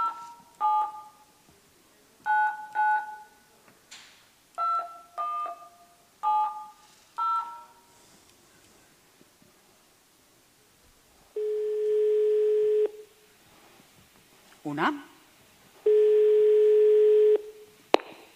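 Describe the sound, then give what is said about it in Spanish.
A quick series of telephone keypad dialing beeps in short bursts, followed by two long, steady ringing tones on the line with a pause between them. No voices. “La persona a la que has llamado y no ha cogido el teléfono, no lo vas a ver.”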